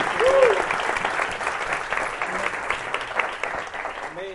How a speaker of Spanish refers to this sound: Dale ese aplauso fuerte a Cristo Jesús. Aleluya. Amén.